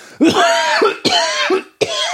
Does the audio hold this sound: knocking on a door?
no